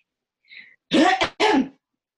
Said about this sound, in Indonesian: Oh, pakai batuk terakhir ya. Soalnya pas udah di kalimat-kalimat akhir udah berasa ada reak gitu loh, ngerti kan? Nah, gatal. udah merambat gitu loh.